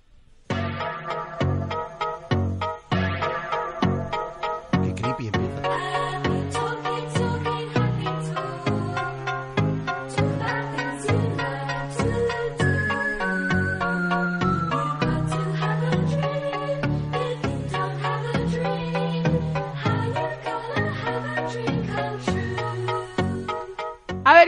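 A calm, gentle pop song, a 1982 version of a song from 1949, plays on its own for the whole stretch, with a steady plucked bass line and a soft melody over it at a moderate, even volume.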